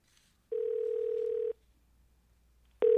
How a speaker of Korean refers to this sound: 통화 신호음이 이어지고 여자는 긴장이 됐어요.